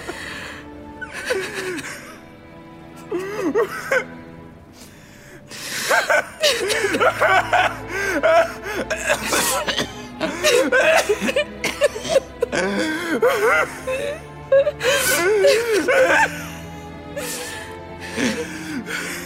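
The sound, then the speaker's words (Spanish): A woman and her brother crying and sobbing together, bitter and deep, with wavering, high-pitched wails and shaky gasps coming in uneven bursts, fairly loud, voices overlapping with brief pauses between outbursts. “a su hermano y juntos dejaron salir el llanto. Un llanto amargo, profundo, sincero, que lentamente se fue transformando en rabia.”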